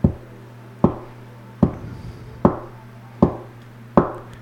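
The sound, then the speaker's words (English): Six slow, evenly spaced taps, fairly loud, each with a brief ringing decay, imitating the footsteps of something walking down a long apartment hallway at night, over a steady low hum. “It's a long hallway in that apartment I lived in, and it's just footsteps.”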